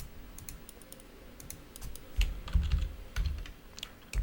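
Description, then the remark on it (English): Rapid, uneven clicking of computer keyboard keys as someone types out a tweet, a steady patter of sharp taps with a few heavier thumps, heard on its own without any talking. “Sorry, I'm I'm tweeting out.”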